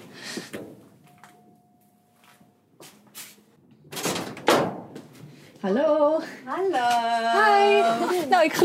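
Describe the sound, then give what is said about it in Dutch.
A faint, steady electronic bell tone rings for a couple of seconds from a separate doorbell at a garage door, then a door rattles and bangs open, followed by voices talking. “geloof dat ik nog nooit eerder bij een garage heb aangebeld.”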